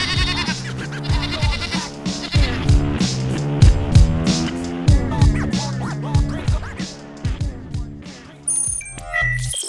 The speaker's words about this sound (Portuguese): bota um zoado de uma cabra aí. É, é, é um bode.